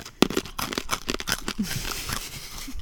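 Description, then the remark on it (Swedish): A bag of Turkish pepper salty licorice candy crinkles and rustles in a quick burst of sharp crackles, then settles into softer, steady crinkling, with faint chewing underneath and no talking. “Jag får tugga i med den här va? Den här ljud...”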